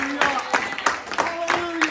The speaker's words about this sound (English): Somebody clap your hands, lift up your voice, and give him some glory.